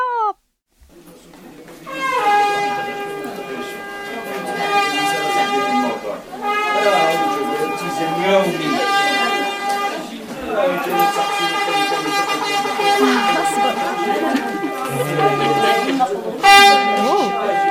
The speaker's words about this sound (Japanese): ヌフィルというラッパなんですね、うんうん、これモロッコのシェフシャウエンの音風景なんです、うんうん、聞きどころはラッパが凄まじい音なんです